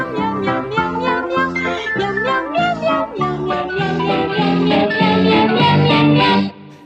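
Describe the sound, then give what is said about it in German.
A catchy jingle from an old cat food commercial, sung entirely in repeated meows, rhythmic and upbeat over a steady musical backing, with strong harmonic tones stepping up and down in a looping melody, loud. “Mal hat er so einen alten Clip aus einer Werbung für Katzenfutter gespielt. It's like meow meow meow meow meow meow meow meow meow meow meow meow meow meow meow meow.”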